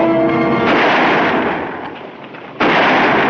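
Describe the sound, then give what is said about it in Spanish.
Gunfire from Juarista rebels coming out of hiding to attack an imperial convoy, with lancers repelling the attack, crackles in a dense, continuous barrage of overlapping shots, easing slightly midway before a sudden loud burst of renewed firing near the end. No voices are heard. “Los rebeldes salen de sus escondites y disparan.”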